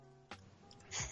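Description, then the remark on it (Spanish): A quick sharp intake is followed by a single sneeze near the end, fairly soft, with no talking around it. “Salud.”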